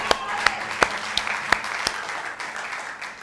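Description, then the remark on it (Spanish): An audience breaks into applause for God Almighty, a dense wash of clapping with a few sharp, evenly spaced claps standing out at first, then the sound gradually thins toward the end. “El que tiene la última y la primera palabra es el Dios Todopoderoso, a quien pido que usted le dé un fuerte aplauso.”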